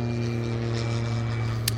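A hydrogen-powered, CO2-neutral aircraft flying, its propeller engine holding a steady, humming drone with strong low tones at an even loudness throughout, with no voices.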